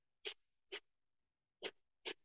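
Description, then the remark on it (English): Four sharp, forceful, loud puffs of breath pushed out through the nostrils with the mouth closed, in a powerful breathing method driven from the diaphragm by pumping the navel in and out, coming in two quick pairs with short pauses between. No one speaks. “So you're uh, pumping the navel in and out towards the spine and keeping your mouth closed and breathing in mm. and out from your nostrils.”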